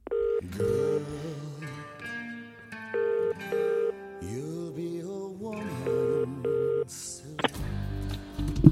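A phone number is dialed, a series of short, steady touch-tone beeps pressed in a quick rhythm, each a clear electronic tone, over a faint background hum before a brief rustle at the end.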